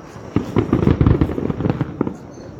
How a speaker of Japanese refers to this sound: まあ、皆様にはこの音だけでも届けられたらいいなと思います。長良川花火2023開始でございます。今から8時半ぐらいまでずっと鑑賞しようと思います。すごいな立派ですよ。